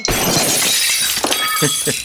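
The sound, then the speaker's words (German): Dishes clatter and clink on a rolling dish trolley, a loud, continuous jangle of crockery and glass with sharp bright rattles and a few heavier knocks throughout. “Warte mal, ich, ich, ich glaube, ich muss mal ganz kurz hier den Geschirrwagen.”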